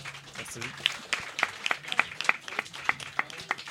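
An audience warmly applauds to welcome a guest, with a dense wash of hand claps and several sharp, louder claps standing out in a quick, fairly even rhythm throughout.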